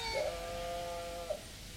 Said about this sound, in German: Ach, die Schafe. Liebe Tiere.